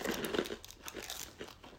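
A plastic fortune cookie wrapper crinkles as it is pulled open, a quick run of soft, irregular rustling and crackling bursts with no voices.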